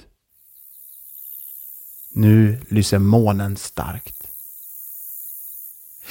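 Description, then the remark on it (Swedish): Crickets chirp in a soft, steady pulsing drone throughout, with a man speaking briefly over them partway through before the faint nighttime chirping carries on alone. “Man hör hur fågelkvitter går över till syrsornas ljud.”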